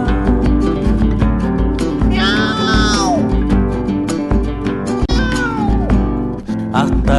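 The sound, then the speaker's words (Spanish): A cat meows twice, drawn-out, wavering cries, loud, over steady, busy background music with a rhythmic pulse. Nobody speaks. “¡Fuera, gato!”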